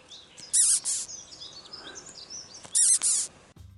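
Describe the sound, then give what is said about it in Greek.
An exotic furry caterpillar squeaks when squeezed, giving two pairs of sharp, shrill squeaks separated by a short pause. The squeaks are loud, with faint background hiss and no talking. “Λοιπόν, αυτό που ακούσατε είναι μία κάμπια όταν τη ζουλά.”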